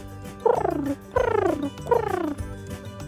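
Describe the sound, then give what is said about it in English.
A person imitates a pigeon with three throaty, warbling coos, each sliding downward in pitch, spaced evenly with short pauses between them and no other talking. “Hmm, maybe I'll give it a try. This is a pigeon.”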